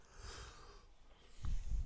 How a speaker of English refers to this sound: it was a yawn. I was oh, I trying to like stop it.